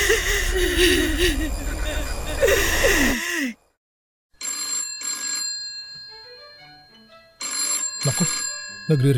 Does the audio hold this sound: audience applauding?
no